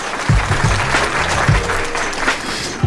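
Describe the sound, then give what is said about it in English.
A crowd claps steadily for a few seconds, dense overlapping hand claps with a few louder claps standing out from the wash. “Y'all want to give me a round of applause for this being the end of this season?”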